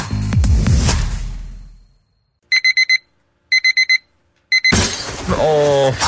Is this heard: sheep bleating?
no